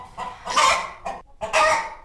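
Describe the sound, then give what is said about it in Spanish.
Hens of the rare Moñuda and Tufona breeds, kept in Guadalcázar, Córdoba, Spain, clucking: two bursts of raspy, bright squawking calls with a short gap between them, no voices present. “Pues en principio os contamos que son gallinas únicas que suenan así.”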